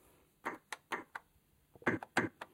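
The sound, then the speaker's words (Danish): Several dull, thumpy, fairly quiet drum hits from a plastic toy keyboard's bass drum sound, played by pressing a large green button with a bass drum picture, in a loose pattern of single and paired beats with short gaps between. “Der er der et billede af en stortrumme, som lyder...”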